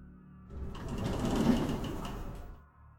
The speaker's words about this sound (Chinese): 我蹲下身子，从口袋里掏出钥匙，打开锁，用力向上一拉，卷帘门立刻发出刺耳的轰鸣